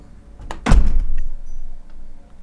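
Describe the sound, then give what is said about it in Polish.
A balcony door, closed as a test of very low-frequency sound, slides and shuts with one heavy, booming thud, deep bass swelling and lingering, preceded by a brief scrape and followed by a low rumbling tail; no voices. “W momencie, kiedy zamykam balkon, no właśnie jest taki, taki bas duży.”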